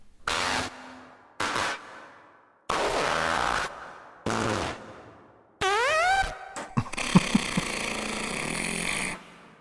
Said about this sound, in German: Du hörst das, ne? Da hat jemand sich die Mühe gemacht, 40 Minuten lang Furzgeräusche hintereinander zu schneiden.